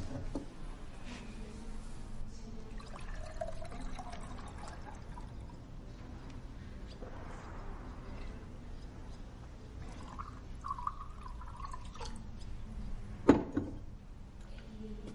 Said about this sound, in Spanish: Luego, coge un vaso y se sirve zumo.